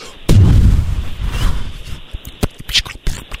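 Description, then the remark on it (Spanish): A loud, deep explosion booms and rolls off in a long rumble, followed by a scatter of sharp cracks and pops like debris or further small blasts. “Oye, es efectos como de, de explosión, ¿verdad?”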